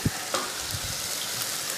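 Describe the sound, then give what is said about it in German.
Onion being sweated in a frying pan, a steady hiss of crackling across the whole clip, with a brief clank of a utensil near the start and no voices. “So, jetzt wird es schon zischen. Ja, das ist einmal der Zwiebel.”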